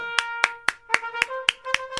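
hands clapping

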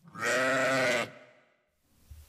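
sheep bleating

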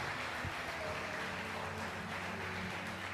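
audience clapping

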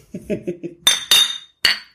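glasses clinking

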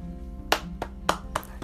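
hand clapping

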